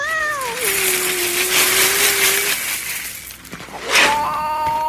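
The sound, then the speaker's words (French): A cat gives a drawn-out meow, then a shorter one near the end, over a continuous crunchy rattle like kibble being poured and eaten; no talking. “Purée, putain, mais il mord ton chat.”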